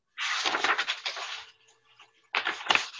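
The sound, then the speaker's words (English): Old press-kit paper from 1977 crackles and rustles in two bursts of handling: a long crinkly stretch, a short near-silent pause, then another brisk crackle. It's fairly loud and dry, with no talking. “I love the sound of this paper.”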